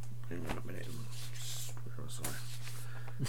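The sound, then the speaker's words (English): Rustling of paper notes: a few crisp, crinkly bursts as pages are shuffled and handled, over a steady low electrical hum with no one talking. “so you go rustling of notes is very common in episodes like this.”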